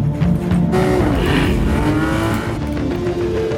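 In a car advertisement, a car's engine roars loudly and steadily, with rising harmonic tones as it accelerates and overtakes, sweeping past, a brief tire-like squeal in the middle; no voices.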